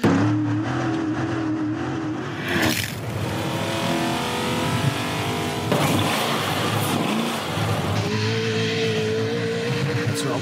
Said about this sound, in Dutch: aangedreven, goede 400 pk, 6,2 liter Corvette motor erin. Dus echt lekker brullen. Echt ja. V8, gewoon lekker dat ronkelende geluid.